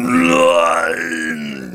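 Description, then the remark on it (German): A voice imitates a monster's scream from the depths of a castle: one loud, sustained, guttural howl lasting nearly two seconds, rough and strained, slowly sagging in pitch as it trails off, with no other talk. “Aus den Tiefen des Schlosses hört ihr”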